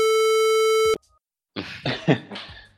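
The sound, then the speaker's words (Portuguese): A loud, steady censorship bleep runs for about a second and cuts off abruptly. After a brief silence come a few short, rough vocal bursts, like coughs or throat clearing. “Vou bipar porque os fãs dele são malucos.”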